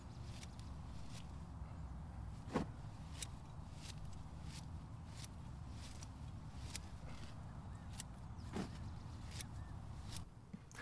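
Crisp snips of scissors cutting greens during a harvest on a farm come one after another at an uneven, unhurried pace, over a steady low outdoor rumble. No one speaks.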